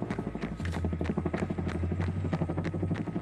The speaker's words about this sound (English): It's that helicopter again, coming in for a landing.